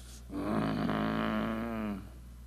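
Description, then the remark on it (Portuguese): A person imitates wolves growling with one sustained, rough, throaty rumble lasting about two seconds, fairly loud, with no words spoken. “E os lobos vão rosnar.”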